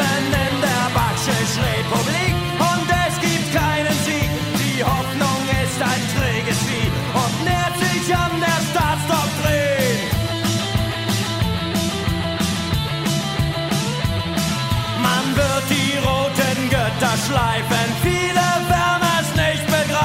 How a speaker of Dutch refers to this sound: Ja, u hoort het al, dat waren klanken uit de DDR. Eh, van een eh, prachtige band. Hoe heet die band ook alweer?